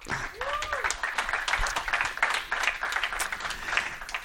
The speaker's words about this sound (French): Alors merci déjà à vous quatre euh, de vous être rendus disponibles et puis bah, je pense qu'on peut vous les, on peut les applaudir dès à présent.